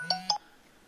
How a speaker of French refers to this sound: Désolé, il y a mon téléphone qui a sonné.